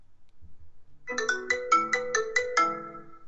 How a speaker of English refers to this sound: is your phone like is the ringer on nope turn it on do i have a special ringtone no you don't well let's hear what your regular ringtone is okay don't spoil it